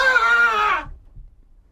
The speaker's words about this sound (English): I woke up suddenly and heard a terrible scream from the room above my bedroom.